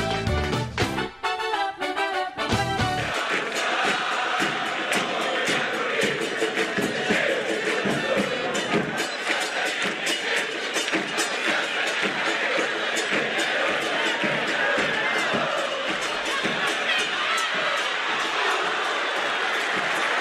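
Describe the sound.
A large crowd of football fans, the Inchada Carboneira, sings a terrace chant together, loud and sustained, voices blending into a dense roar that carries steadily through the whole stretch, with rhythmic swells and occasional shouts.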